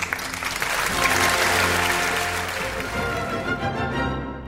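A crowd applauds steadily, with dense overlapping clapping that holds at a fairly loud level throughout, a faint tonal hum underneath, and no one speaking.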